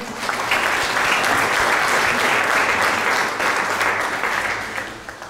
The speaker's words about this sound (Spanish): Les damos un, aplauso a mis dos amigos.